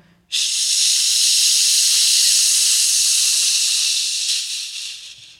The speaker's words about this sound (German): Im eigenen Tempo. Beim Einatmen locker lassen. Und nochmal ganz intensiv ausatmen.